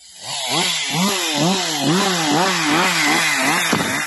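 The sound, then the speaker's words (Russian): A gasoline chainsaw engine runs loud, its pitch rising and falling in repeated revving waves as loggers cut trees, with no voices present. “Представьте, вы пытаетесь обнять дерево, а рядом с вами рослый мужчина, который размахивает заведенной бензопилой и попутно оскорбляет вас.”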